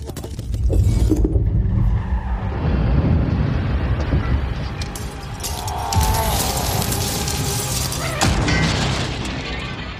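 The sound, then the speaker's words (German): A car crash: a loud, sustained rumble of impact and grinding metal, with bursts of the windshield shattering high and bright over the roar, then further crunching debris. No voices. “Die Windschutzscheibe ist in tausend kleine Diamanten zersplittert.”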